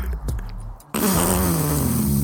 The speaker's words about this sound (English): I've never heard a cigarette make a fart noise in my life. You're not fucking smoking right then.